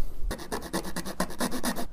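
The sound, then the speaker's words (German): Rapid, rhythmic rasping strokes of a makeshift file scraping plastic, about eight or nine back-and-forth passes with bright, hissy texture, steady and fairly loud, with no talking. “Ich würde sagen, dann mache ich einfach mal mit einer Notlösung der Pfeile weiter.”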